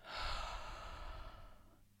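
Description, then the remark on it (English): A deep, airy breath in through the nose and out through the mouth during a breathing meditation, long and steady, holding for about two seconds before trailing off softly; no one speaks. “Nice big deep breath.”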